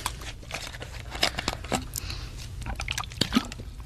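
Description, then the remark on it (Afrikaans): Water is poured from a bottle at a table: a few seconds of irregular gurgles, splashes and small plastic clicks, with no voices. “Hier is 'n bottel water.”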